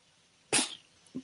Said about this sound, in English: Um, you heard the cat sneeze. I did, and I recognized it as a cat sneeze because I'm a cat mm-hmm. person, as it were.